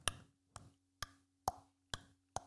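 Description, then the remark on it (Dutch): An alarm clock ticks steadily, six sharp, evenly spaced clicks about half a second apart, clear over a faint low electrical hum, with no voices. “En dat zetten ze dan vaak bij mij thuis eh, eerst een wekker ervoor, zodat je”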